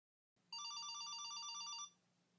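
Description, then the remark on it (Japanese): A mobile phone rings with a rapid, trilling electronic tone, loud, lasting over a second before cutting off, with a faint low hum underneath. “過去の情景に思いを馳せていた彼女であったが、携帯電話の音によってそれは消えた。”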